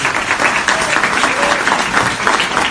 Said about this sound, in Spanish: Un aplauso, por favor, también a José.